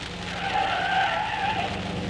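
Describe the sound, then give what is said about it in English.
Car tires screech in one long, loud skid lasting about two seconds, the squeal wavering in pitch as the car swerves around a bus, with no voices. “Gosh, didn't you see that bus? Yes, but I thought I could fly over it. I mean, fly around it”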